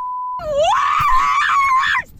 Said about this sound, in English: Then we got the libs screaming in a car.